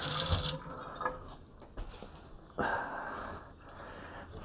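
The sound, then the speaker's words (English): A tap runs steadily while hands rub and splash beneath the water, with a brief louder gush at the start and small clatters along the way, fairly quiet. “Just gonna wash my hands.”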